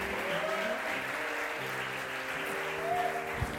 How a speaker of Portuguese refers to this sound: Aleluia, aleluia. Aplauda bem forte a Ele, glória a Deus.